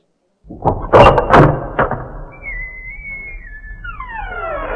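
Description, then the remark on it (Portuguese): A sound effect of shopping center doors opening: a few heavy clunks and thuds, then a sustained whistling tone that glides and falls away in sweeping pitches. Loud, with no voices. “Agora nós vamos para o Shopping Center. Abra-se as portas.”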